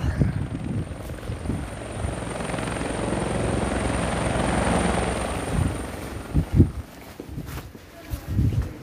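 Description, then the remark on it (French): A helicopter passes overhead, its rotor thudding and engine whine swelling to a peak mid-clip before fading, with a few footsteps or knocks nearby toward the end. “Et euh, je me dis que hum, peut-être que pour moi, pendant un petit temps, là, les bruits de l'hélicoptère vont ressembler, vont symboliser ces périodes du Covid.”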